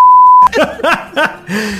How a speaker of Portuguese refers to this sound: Não, vou até cortar esse trecho, não Caralho! Deixa eu bipar tudo isso que não tem condição.